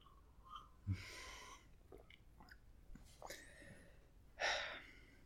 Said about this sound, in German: es könnte sein, dass es stören wird, aber wir müssen beiden richtig leckeren türkischen Tee schlürfen.